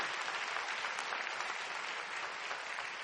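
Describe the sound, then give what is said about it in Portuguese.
A crowd claps steadily in applause for a Bible verse, the word of God, a dense wash of many hands applauding at once, sustained and fairly loud for a few seconds with no voices standing out. “Você pode aplaudir essa palavra de Deus, esse versículo.”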